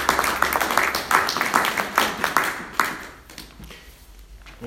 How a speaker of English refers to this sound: But for all those who serve so quietly behind the scenes, God bless you and thank you for all you give. Please can we give them a round of applause too.